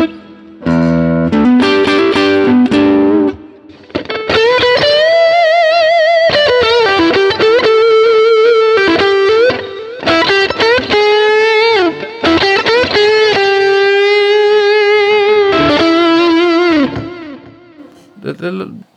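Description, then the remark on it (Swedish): A distorted electric guitar plays sustained lead notes with bends and slides, loud and continuous, with a few shorter phrases at the start and a brief pause before the final note. “Åh vad gott effektljud det låter när jag själv helt värdelöst att spela in i.”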